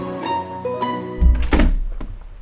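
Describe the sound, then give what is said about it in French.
A sustained chime-like tone rings, then elevator doors open at the second floor with a heavy low thunk and a brief rushing slide, loud, with no voices. “Deuxième étage. Ouverture des portes.”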